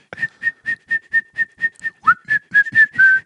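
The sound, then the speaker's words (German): Someone whistles a tune continuously without stopping, breathing in and out while whistling, holding a mostly steady pitch with a brief dip, the tone pulsing in a quick, even rhythm as breath pushes in and out, with no talking. “kannst mit I und, und ausschnaufen, kannst ununterbrochen pfeifen.”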